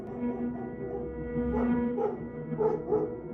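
A dog whimpers in a steady, high whine, broken by four short yelping barks in the second half, fairly close and moderately loud, with no voices.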